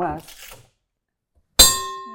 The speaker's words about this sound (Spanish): Déjame, déjame tocar la campana